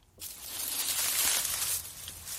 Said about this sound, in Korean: 언뜻 약간 치킨 뜯는 소리 같기도 하지만, 그렇지 않고요. 자, 정답은요. 정답은 낙엽 밟는 소리였습니다.